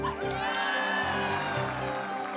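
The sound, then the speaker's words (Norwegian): A large crowd cheers and applauds outdoors on Slottsplassen in the morning, greeting the new government: a loud, steady roar of many voices with whoops rising above the clapping, continuous throughout without any single speaker. “Den nye regjeringen møtt med hurrarop og applaus på Slottsplassen i formiddag.”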